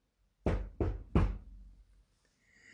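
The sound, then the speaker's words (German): Three firm knocks on a wooden door in quick, even succession, fairly loud, followed by quiet with a faint high hiss. “Der Wolf aber ging geradewegs nach dem Haus der Großmutter und klopfte an die Türe.”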